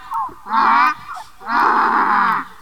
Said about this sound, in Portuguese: A história de um jegue muito bravo Que me deixou num beco sem saída Eu vinha vindo para casa descansar O jegue estava no portão que me pegar Quando me viu foi murchando as orelhas Mostrando os dentes e começou a relinchar